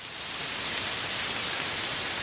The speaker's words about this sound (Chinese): 茉莉猪还来不及抱怨，一场瓢泼大雨已经劈头盖脸的浇了下来，雷声轰鸣，茉莉猪从鼻。到脚趾头全都被淋了个透。